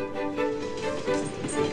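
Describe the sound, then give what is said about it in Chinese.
A voice imitates the wheels of a moving train clattering under a carriage, a steady rhythmic chugging of repeated pulses at a moderate, even loudness for under two seconds. “车厢下面不断传出这样的声音。”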